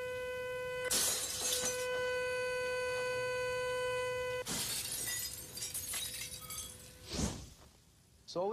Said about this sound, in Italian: Con l'aumentare dell'intensità anche le vibrazioni aumentano e il vetro raggiungerà il suo punto estremo. Alzando il volume, si romperà.